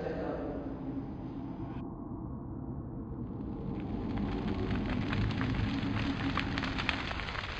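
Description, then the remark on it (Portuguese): A steady, dense roar of fire from a small burning village, its houses and buildings in flames, with scattered sharp crackles and pops, filling the whole scene continuously and growing slightly louder and busier toward the end. “A cena se abre mostrando um pequeno vilarejo pegando fogo, totalmente destruído, com casas construções em chamas, algumas já apenas a, apenas as cinzas e a fumaça saindo”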